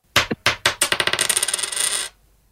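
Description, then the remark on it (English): A single two-dollar coin is dropped onto a hard surface, bouncing a few times before settling into a rapid, accelerating metallic rattle that spins down and stops after about two seconds. “Monday coin drop”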